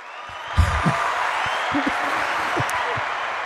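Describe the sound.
A steady wash of crowd applause, dense and continuous clapping that starts abruptly and holds at an even level, with a few muffled voices or cheers rising underneath.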